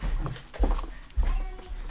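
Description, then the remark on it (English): Dogs whine and whimper excitedly in greeting, a few short, high, wavering bursts with soft snuffling and low thumps in between, no talking. “Hey, puppies.”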